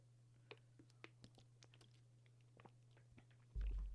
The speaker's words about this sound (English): I gotta take a sip of water.